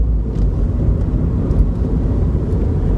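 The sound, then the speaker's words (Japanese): A steady, heavy low-frequency rumble of car vibration transmitted while driving through a smartphone holder on the air-conditioner vent to an iPhone recording with its built-in microphone, loud and constant with a faint rattle on top and no speech. “あとは車の振動がそのスマホホルダーを通ってエアコンの送風口スマホホルダーそしてスマホという感じで結構うんと何て言うんでしょうねソリッドな振動が伝わってしまってカタカタ言うとかえー、低音のねブワーっていう音がすごく大きかったり”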